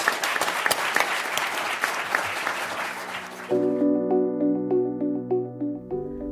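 audience applause

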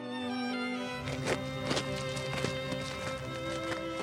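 footsteps walking outdoors

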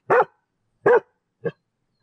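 small dog barking

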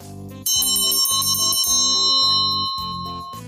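doorbell ringing

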